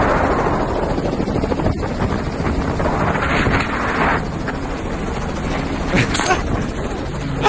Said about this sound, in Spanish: Están, están cazando. Ajá, cazando así en un helicóptero.